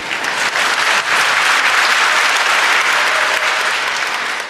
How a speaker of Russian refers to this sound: И аплодисменты ваши – это гораздо важнее.